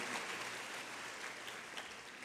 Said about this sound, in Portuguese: Deus, dá uma salva de palmas para Jesus. Aleluia.